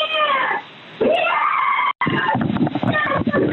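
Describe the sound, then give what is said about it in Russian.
A woman screams behind a door in long, piercing wails that rise and fall, then breaks into shorter, ragged cries after a brief cutout. The sound is loud and thin, like a phone recording. “Девушка, вот слышите, как она орет там за дверью.”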